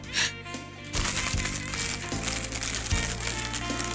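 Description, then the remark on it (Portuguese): A plastic biscuit packet is crinkled and crushed continuously, producing dense crackling and snapping that imitates a fire crackling in a fireplace, steady with a few louder crunches. “Isto é o som Isso do é fogo. crepitar? É.”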